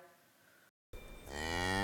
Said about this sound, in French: Ricky va voir les vaches qui meuglent si bien.